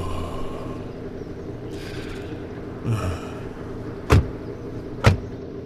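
People climbing into a car, the original car from a film: soft shuffling and seat rustles, then two sharp thuds about a second apart, like car doors shutting, over a low steady background hum.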